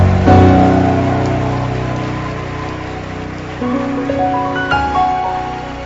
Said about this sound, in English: Are you excited to be here? Oh, then I cannot feel your excitement at all. Show it with a shout and a hand clap unto Jesus.